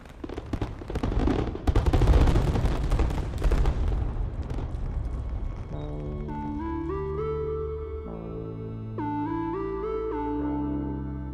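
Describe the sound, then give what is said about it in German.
A loud, rapid barrage of fireworks bursting and crackling in New Zealand for about five seconds, dense overlapping bangs, then fading out as a gentle melodic music passage takes over. The fireworks are a display given as a thank-you gift to the country. “Das Feuerwerk soll ein Geschenk sein, als Dankeschön.”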